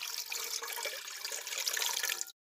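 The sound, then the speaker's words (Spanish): A steady, splashing stream of water pours into a basin for about two seconds, even in volume, then stops abruptly. No voices are heard. “tomó la toalla, se la ciñó, agua en el recipiente”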